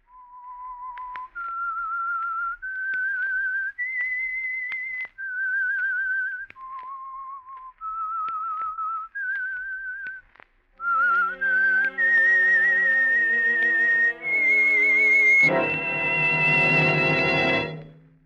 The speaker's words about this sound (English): The Signal Oil Program, The Whistler. That whistle is your signal for the Signal Oil program, The Whistler.